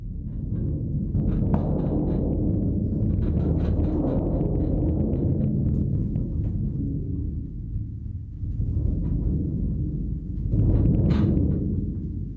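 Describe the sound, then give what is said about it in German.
A deep, rumbling roll on a large drum struck with a mallet, imitating thunder: played loud, it starts slowly, grows louder up to an explosion and then fades away again, with no voices. “Der wird erstmal wie in der realen Welt langsam anfangen und dann immer lauter, bis es zur Explosion kommt und dann wieder abklingen.”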